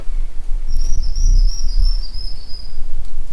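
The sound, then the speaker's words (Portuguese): A thin, high-pitched whistled song of a formigueiro-assobiador antbird, one long wavering note lasting a couple of seconds, against a low, rumbling forest background with no voices, recorded between the Serra do Cipó and Diamantina in Minas Gerais, Brazil. “Este é o cenário de uma pesquisa que investigou a influência da cobertura florestal em comunidades de aves como o formigueiro assobiador, que você vai ouvir agora.”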